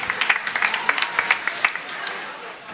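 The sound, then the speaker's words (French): An audience claps for a contestant for a few seconds, a dense patter of many hands with sharp crisp peaks, steady at first and then thinning out toward the end. “Bravo On applaudit bien notre candidate.”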